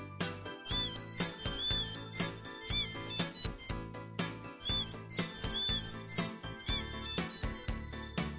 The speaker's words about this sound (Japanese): ま、ボタンを押してる限りにはこの音が流れてます。これが鍵の方についてる音でして、で、逆に携帯を鳴らす場合は、鍵についてるボタンをね、押すとこれが流れる。